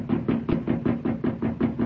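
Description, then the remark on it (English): Rapid, steady pounding on the locked doors of a store, about ten heavy thuds in under two seconds, loud with no pause between blows and no voices. “Pasquale is a bang on the doors”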